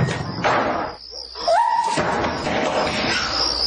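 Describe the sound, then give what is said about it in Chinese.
A door swings shut, a short creak followed by a solid thump, with a dense rustling noise surrounding it before and after. “妈，你不要关门吧！”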